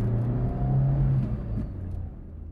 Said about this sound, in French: C'est ce que se répète Nicolas de Taverneau après avoir raccroché, tandis que sa voiture passe sous la tour Eiffel.